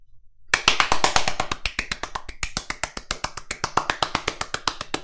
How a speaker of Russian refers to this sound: несмолкающие аплодисменты дорогим коллегам и друзьям с загнивающего Запада. Похлопаем господам в Исландии. Молодцы!